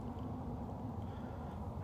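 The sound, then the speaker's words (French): A steady, low rumble of road traffic hums on without pause from quite a few cars passing on a nearby road in the countryside, fairly faint and even, with no single car standing out and no voices. “Bon, là, je suis quand même proche d'une route, euh, il y a pas mal de voitures euh, qui défilent j'ai l'impression que je suis tellement habitué au bruit”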